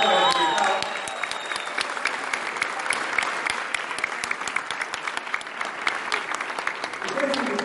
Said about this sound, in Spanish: Levanten la mano, por favor, quienes aquí son invitados en esta tarde. Ok, un aplauso por estos para